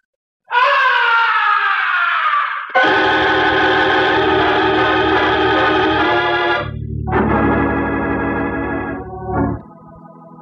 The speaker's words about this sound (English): From way up in the heights of the stage, the opera house was pierced with a blood curdling scream. That was no ordinary scream, it was the scream of death.